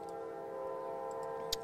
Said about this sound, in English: Uh, excuse the train in the background. live, live uh, internet TV, uh, you never know what you're going to get. So, um, but as I was saying uh, before the uh, the uh, Canadian Express rudely interrupted me,